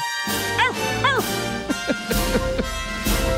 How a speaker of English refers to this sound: small dog. Yeah, small dog there.